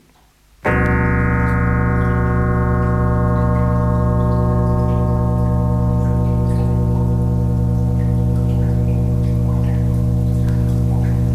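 A steady, loud mechanical drone starts abruptly at a construction site, with irregular ticking and light water splashing layered over it throughout. No one speaks.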